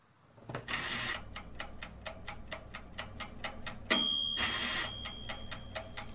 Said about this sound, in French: le temps d'écouter un mix de sons d'appareils de cuisine avec fours et frigos